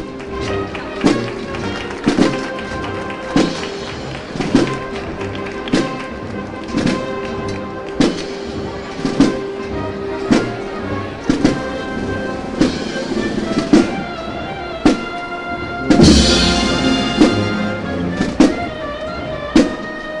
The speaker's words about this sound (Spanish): en carrera oficial y el mismo año, 2017, escuchamos ahora el paso de palio de la Virgen de los Dolores, de María Santísima de los Dolores, que no hemos escuchado durante la madrugada, pero ahora sí lo hacemos ya en la mañana del Viernes Santo.